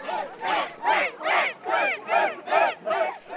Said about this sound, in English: Those are Spain fans cheering, but also England fans clapping for them.